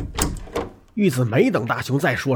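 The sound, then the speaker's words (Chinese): Nobita's bedroom door is pulled open with a couple of quick, rattling knocks, and then a voice starts speaking over the fading sound. “一把拉开了大雄的房门。”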